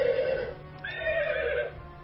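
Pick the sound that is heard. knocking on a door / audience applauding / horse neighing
horse neighing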